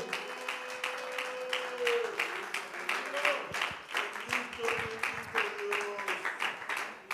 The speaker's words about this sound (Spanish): En este caso no era un perfume de un humano, en este caso era la misma gloria y el mismo poder del Señor Todopoderoso que se merece una alabanza y un aplauso de su pueblo.